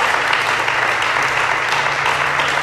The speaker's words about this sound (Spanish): Un aplauso fuerte para el Señor Jesús. Vamos, Señor se puede más, se más, se puede más.